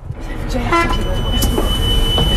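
A Transdev city bus in Oudan, in the Yvelines, France, pulls away, its driver using fuel-saving eco-driving, with a low, steady engine rumble building up, a brief horn-like toot and faint tones sounding over the continuous road noise.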